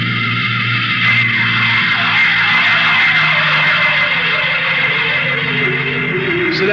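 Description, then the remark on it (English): A loud, steady spaceship engine hum drones throughout, layered with bright whining tones while one pitch slowly sinks lower, unbroken with no voices. It comes from the jets in a spaceship's power room as the ship lifts off for Earth. “I'll just lay down to the power room. I kind of like to be near the jets when they blast off for Earth.”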